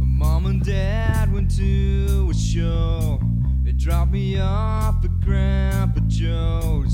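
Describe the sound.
A loud rock song plays at full, steady volume, with a sung lead vocal over driving drums and thick, distorted electric guitars from start to finish.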